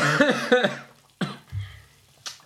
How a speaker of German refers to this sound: Kann ich kurz unterbrechen? Ich muss mal husten, weil die Salsa ist mhm. etappenweise doch schon ganz schön.